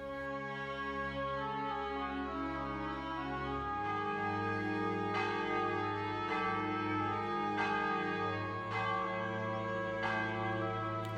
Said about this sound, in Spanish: en algún momento dado de su labor había empezado a sonar la campana. Un tañido firme y sombrío. No lo había oído, al menos no de forma consciente,